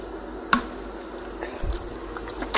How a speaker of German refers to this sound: Dann tue ich einen Schuss Essig. Ich habe hier den ganz normalen Essig.